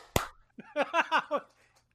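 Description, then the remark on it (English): One sharp, loud hand clap rings out, followed after a brief pause by four quick, rhythmic bursts of a voice, like laughter. “Three, two, one. Clap.”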